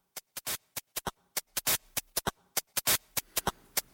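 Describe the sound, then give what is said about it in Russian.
A rhythmic 8-bit game console drum pattern from a white-noise channel and a recorded-percussion channel: crisp white-noise bursts, short hits and a few longer hiss strokes in a quick, steady groove, played alone without melody or voices. “Начинается все с канала, который воспроизводит белый шум, и канала, который воспроизводит записанную перкуссию.”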